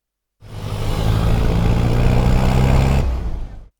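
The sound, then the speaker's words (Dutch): A motorcycle engine drones steadily and loudly while riding on the back down a long mountain road in Cauca province, a continuous low rumble with a rough, wind-blown texture that holds for about three seconds before cutting off. No one speaks. “Achter op de motor ga ik weer de lange bergweg naar beneden.”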